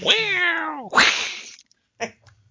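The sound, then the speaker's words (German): A cat meows twice, a long drawn-out call sliding down in pitch followed by a shorter, rougher one, then a few faint soft sounds trail off. The cat is one of several cats surrounding a person at home. “Ich bin gerade umringt von Katzen.”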